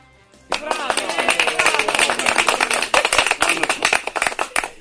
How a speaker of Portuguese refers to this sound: Foi, foi um aplauso meio tímido, né? Não agradou muito.